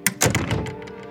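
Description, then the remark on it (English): A door in a hospital room is shut by someone who has just walked in: a quick click followed by a solid, heavy thunk that rings out briefly before fading. No one speaks. “Someone else walked in, closed the door,”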